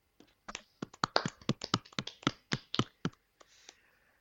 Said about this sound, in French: Messieurs, je vous propose qu'on applaudisse Fabio Quartararo.